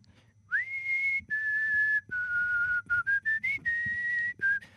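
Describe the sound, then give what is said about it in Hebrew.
A person whistles a short melody alone while playing guitar, sitting on a sofa at the parents' home in Ashkelon on a Friday evening before Shabbat, with clear sustained notes that rise, hold and step between pitches, broken by a few quick staccato notes near the end. “אני יושב על הספה, עם, אה, על קצה הספה, כדי לא להיראות שייח' סעודי בהגזמה, כשכולם מנקים, ו, ואני מנגן בגיטרה ושורק לי.”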